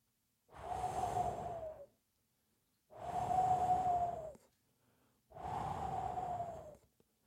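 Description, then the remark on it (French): A voice imitates a hair dryer with three sustained, breathy whooshing blasts, each over a second long with a steady humming tone, separated by short pauses, fairly loud. “C'est un bruit de sèche cheveux.”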